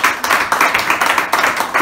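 An audience applauds loudly after a prayer of blessing, a dense, continuous wash of many hands clapping at a steady level throughout, with no voices standing out.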